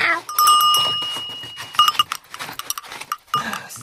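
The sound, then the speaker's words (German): A cowbell clanks and rings out briefly, then jangles again in muffled bursts amid rustling and shuffling as it is packed into a backpack. “Gut, ich packe sie in meinen Rucksack.”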